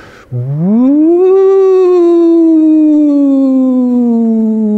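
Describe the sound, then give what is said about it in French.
A man's voice sings a long, loud wailing tone that sweeps upward from low to high, then slowly sinks for several seconds, imitating an alarm siren. “et en fait, ce qu'il me faisait, c'était le son de la sirène d'alarme.”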